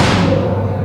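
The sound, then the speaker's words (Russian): A ball flies in and hits with a dull thud that carries a burst of broad noise, the brighter part fading quickly while a low rumble holds on underneath, at the Seliger International Youth Forum. “Э, вы слышите звуки, это прилетел к нам мяч”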